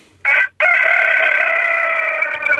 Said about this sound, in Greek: Ακούμε και τα κοκόρια, ωραία.